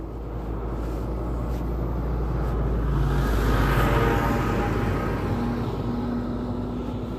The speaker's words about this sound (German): Hinter mir ist gerade ein Traktor. Jetzt muss ich nur schauen, wo der hinfährt. Glaubt, der passiert mich. Also wenn es jetzt kurz einmal lauter wird, das ist der Traktor.